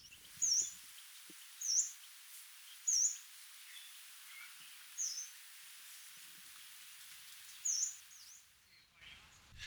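An unseen yellow-browed warbler gives five thin, high-pitched whistled calls, each short and sharply inflected, spaced a second or two apart against a quiet outdoor background with no one talking, while people behind the recordist clean rubbish bins and sweep.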